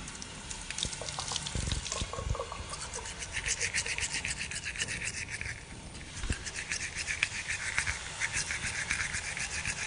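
Someone brushing their teeth: quick, rhythmic scrubbing strokes over a steady hiss of running tap water, fairly loud throughout, with no one speaking.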